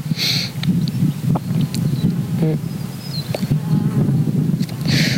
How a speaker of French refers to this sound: ce que j'aime bien quand je fume, c'est faire plein de bruit en soufflant la fumée.